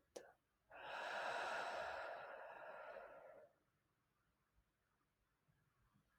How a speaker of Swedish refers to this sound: Så vi tar ett andetag och andas in Och vi andas ut.